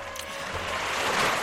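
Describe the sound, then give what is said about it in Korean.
A steady, broad wash of roaring water noise from strong ocean waves surging, with wind, fills the short clip at a constant loud level with no voices. “어, 이렇게 파도가 세찬 걸 보니 물고기도 많이 잡히겠고 음.”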